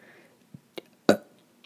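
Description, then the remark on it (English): A short, abrupt burp bursts out, preceded by a couple of smaller throaty gulps, then quiet. No talking. “Here comes another burp.”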